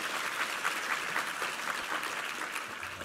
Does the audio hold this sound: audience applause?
yes